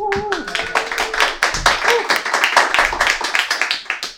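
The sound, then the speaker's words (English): An audience at the Verve poetry event claps steadily throughout, a dense patter of hand claps mixed with cheers and shouted voices, loud and continuous for about four seconds. “Give us some noise. Come on.”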